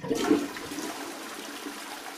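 A toilet flushes with a sudden gushing rush of water, then settles into a steady, hissing swirl that continues until the end. No one speaks.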